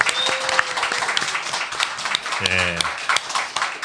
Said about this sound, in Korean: 여러분 뜨거운 박수 부탁드리겠습니다.